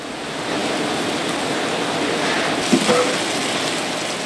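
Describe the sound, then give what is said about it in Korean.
A meatless plant-based Impossible Burger patty, made with wheat and potato starch, sizzles steadily on a hot grill at a restaurant in Los Angeles, a dense, crackling hiss that stays loud throughout, with a brief soft clunk partway through. “미 서부의 대도시 LA의 한 식당에서 햄버거 안에 들어가는 패티가 요리되고 있습니다. 지글지글 불 위에서 익어가는 모양이 영락없는 쇠고기인데요.”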